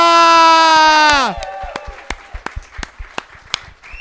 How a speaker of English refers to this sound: And keep that round of applause going from newly from California to Melbourne transplant.